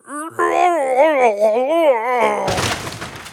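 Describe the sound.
A voice imitates a big bad wolf's frightening roar as it comes through the door: a loud, wavering, growling groan held for about two seconds, ending in a harsh, breathy rush of noise.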